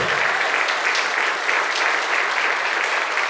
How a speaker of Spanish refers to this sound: Dele fuerte ese aplauso al Señor. Fuerte ese aplauso.